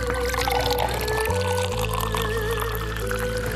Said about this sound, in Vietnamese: Cô ơi Sao mình phải rót đầy rồi gạt nước ra bớt chi vậy Sao mình không rót cho nó đừng có đầy Gạt vậy rồi lát mình có hốt vô không cô Trà là phải thanh các bụi bẩn trên mặt nước sẽ theo đó mà ra ngoài khi em hớt giúp chén trà thơm ngon vạn phần